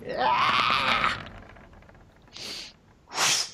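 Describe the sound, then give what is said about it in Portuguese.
A voice imitates the ragged, noisy breathing of a wounded orc whose snout has been broken: one long, strained, groaning exhale, then two short harsh breathy gasps after a pause. Loud, with no other sounds. “Ele tá respirando de, de um jeito fazendo barulho, assim, sabe?”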